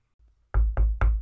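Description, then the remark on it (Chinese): Three heavy, evenly spaced knocks on a bedroom door as a younger brother bangs on it, loud and booming with a low thud and sharp attack, preceded by a faint low rumble, no voices. “弟拍打着我的房门，打乱我的思绪。”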